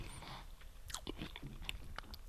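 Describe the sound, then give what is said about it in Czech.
Chewing of crunchy baked, salted roasted peanuts, with a quick series of crisp crunches and moist mouth clicks over about two seconds, quiet, with no talking. “Oni tam křupnu a přitom jsou, ale nejsou tvrdý.”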